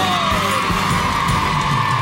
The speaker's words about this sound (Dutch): dit is het duo Giegel geen spiegel zonder goochel. Dus ook uw applaus voor Goochel.